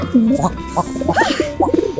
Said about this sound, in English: Mindy, what are all these pigeons doing in your house? Oh, Reggie's just having a little get together with a few of his closest friends. Don't worry, they're all vaccinated.